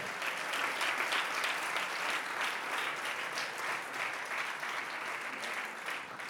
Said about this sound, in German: Bitte bleibt mal kurz stehen, ihr Herrlichen. Lass uns mal all den Leuten, die stehen, einen megamäßigen Applaus geben. Ihr könnt immer noch stehen bleiben.